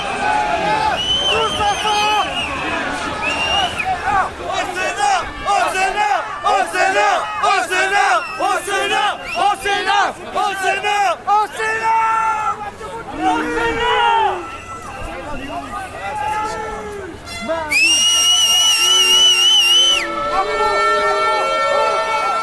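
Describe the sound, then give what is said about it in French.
A loud protest crowd as the first street clashes begin, with the air stinging noses and eyes: many voices shouting and chanting in overlapping bursts, including calls to go to the Senate, with a rising, wailing siren-like tone cutting through near the end. “les premiers affrontements ont commencé”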